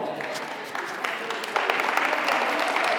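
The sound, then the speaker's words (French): A crowd of parents applauding, steady dense clapping that swells louder about halfway through and carries on without a break, with faint voices mixed in. “Évidemment, c'est les parents qui applaudissent.”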